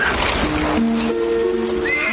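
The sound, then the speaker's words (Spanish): A mare neighs loudly as a rider arrives on her back, a wavering whinny with sharp harmonic cries rising and falling over about two seconds, with a faint clatter of movement underneath. “llega montado al lomo de la yegua.”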